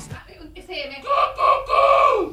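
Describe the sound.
A person imitates a rooster's crow, a short lead-in followed by a loud, drawn-out, wavering vocal call lasting a couple of seconds.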